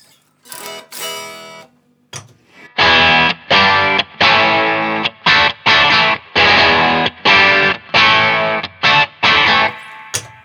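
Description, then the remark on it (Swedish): Distorted electric guitar riffs played on a Stratocaster's standard single-coil pickup, for comparison with similar riffs: a couple of brief opening notes, then loud, chunky chords in a stop-start rhythm with sharp gaps between bursts. No voices. “När jag ändå har min favoritstratt där så kan man bara jämföra några liknande riff på en Stratastall-mick här.”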